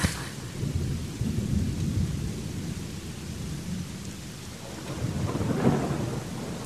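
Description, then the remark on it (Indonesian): Low, rolling thunder rumbles steadily through a steady patter of rain, swelling again near the end with a deeper roll, as lightning strikes. No voices, just the storm. “Seiring dengan kilat petir, lampu di pantry tiba-tiba mati untuk sesaat.”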